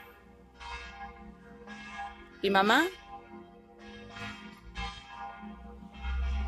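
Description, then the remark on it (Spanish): Church bells ring in a steady series of resonant strikes, each tone lingering into the next, while a voice briefly speaks partway through. “El tañir de las campanas.”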